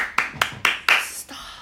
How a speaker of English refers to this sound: No, it doesn't. It literally sounds like clapping.